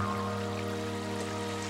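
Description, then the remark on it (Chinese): Rain falls over a small river in a steady, continuous soft hiss and patter, with a constant low tonal hum underneath and no voices. “下雨了，鱼儿们更加活跃。”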